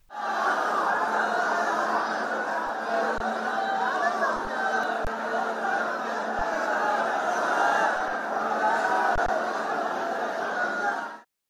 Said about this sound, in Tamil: இன்று அதிகாலை நான்கு மணி அளவில் நடைபெற்ற இந்த நிகழ்ச்சியில் ரத்தின அங்கி அலங்காரத்தில் பெருமாள் எழுந்தருளினார் கடும் குளிரையும் பொருட்படுத்தாமல் ஏராளமான பக்தர்கள் குவிந்தனர் கோவிந்தா நாம கோஷத்துடன் பக்தி பரவசத்துடன் பெருமாளை தரிசித்தனர்